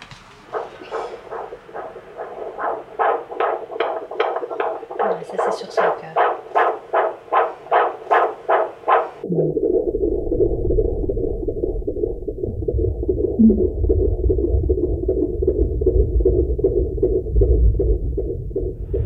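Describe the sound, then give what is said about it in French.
Rapid whooshing pulses of a fetal heartbeat through a Doppler monitor, steady and quick, giving way to a muffled, rumbling hum with faint scratchy noise as the probe shifts. “Euh, bon alors bébé, on va t'écouter.”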